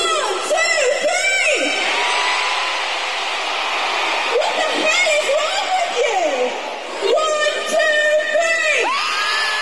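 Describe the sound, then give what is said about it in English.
A large concert crowd at a show in London cheers loudly and continuously, a dense roar dotted with high-pitched shrieks, whoops and excited shouts that rise in bursts, especially near the start and end. “She stopped and talked to the crowd and she rocked a fake accent.”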